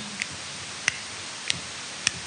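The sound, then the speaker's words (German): A lamp switch clicks on and off four times at a steady, unhurried pace: sharp, crisp snaps over a faint background hiss, with no voices. “Hört das? Klick, klick, klick an, aus, an, aus.”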